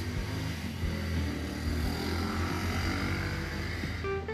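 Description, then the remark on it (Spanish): A loud motorcycle engine drones steadily, its buzzing, harmonic rumble holding fairly constant throughout with no one speaking over it. “Gracias, señor de la moto.”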